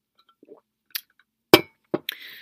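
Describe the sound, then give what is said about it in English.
A glass clinks four times in quick succession as someone takes a sip of water, bright sharp taps with the loudest in the middle and the final one leaving a short, high ringing tone. A faint soft rustle comes first; no one speaks. “Y'all know I have to take a sip of my water because my voice, you know, my voice box is sensitive.”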